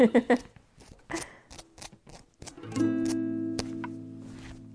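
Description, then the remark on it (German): Music made on a hot water bottle: rubbery tapping and slapping sounds, then a sustained squeaky, droning tone for the last two seconds, with no talking. “Ja, ich kann ein bisschen ich, auf, der, auf der Wärmflasche ein bisschen Musik machen.”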